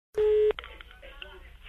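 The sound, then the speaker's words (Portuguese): A single loud, steady telephone tone sounds for about a third of a second as a phone call is placed again, followed by quieter line noise and faint phone-line sounds. “Então vai, Acunha, vamos ligar de novo. Vai, liga, liga, liga.”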